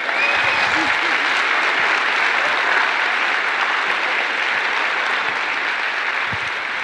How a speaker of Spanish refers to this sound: Y te pido que te des un aplauso a ti y a todos los que están a tu alrededor.